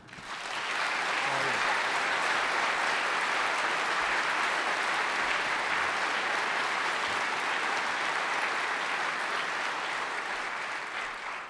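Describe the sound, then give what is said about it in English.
A large audience at the Westminster Town Hall Forum applauds loudly and steadily as Jonathan Capehart is welcomed, a dense wash of clapping with scattered cheers that holds for about ten seconds before easing slightly at the end. “I haven't even gotten to you, Jonathan, and they're already cheering.”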